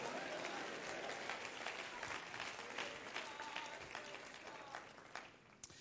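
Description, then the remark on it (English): A church audience claps steadily throughout, a dense wash of many hands with some crowd noise and scattered voices beneath, easing slightly toward the end. “Clap your hands and shout, There's nothing like the church.”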